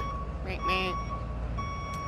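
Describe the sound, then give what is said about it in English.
A vehicle's reversing alarm beeps in steady, evenly spaced electronic tones over low rumbling background noise, with a brief voice sounding partway through. “Beep beep.”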